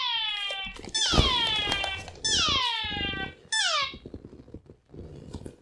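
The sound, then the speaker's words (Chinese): An alarm clock that was accidentally left on goes off. It is the kind that must be shaken to switch it off. It sounds four loud, drawn-out tones that sweep downward in pitch like meows, separated by short gaps, with some low rumbling noise at the end. “不好意思，刚好闹钟没有关，然后我的闹钟还要摇摇摇。”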